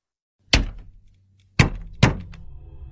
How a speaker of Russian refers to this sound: О боже, я не могу думать об этом стуке. Я ненавижу этот непрекращающийся шум.